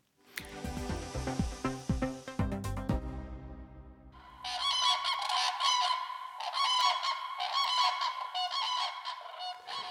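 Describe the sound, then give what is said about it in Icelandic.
Common cranes calling loudly, with overlapping harmonic trumpeting calls at first, then a dense, sustained chorus of higher, rolling bugling calls that continues without pause to the end. “Þetta eru grátrönnur sem við heyrum í, common, crane, grús, grús.”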